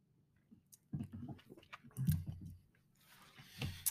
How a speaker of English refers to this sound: Another sip here of this small town big beer, blueberry wheat.